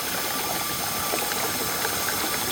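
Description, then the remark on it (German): A steady, unbroken mechanical drone of running machinery in the basement of a high-rise building, with a faint whirring tone on top and no voices. “Ja, das wäre für mich das Geräusch im Keller eines Hochhauses.”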